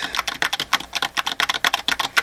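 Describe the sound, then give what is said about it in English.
Rapid keyboard typing as a password is entered on a computer: a quick run of about twenty crisp key clicks in an uneven rhythm, with no voices over it. “You put in the password.”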